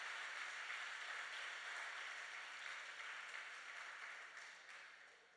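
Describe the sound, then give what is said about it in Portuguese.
A crowd applauds the Lord in a dense, steady wash of many overlapping claps, holding level for several seconds before gradually thinning and fading out. No one speaks over it. “Aplaude o Senhor.”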